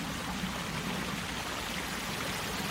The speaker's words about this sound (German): Der Bach, der fröhlich vor sich hin plätschert.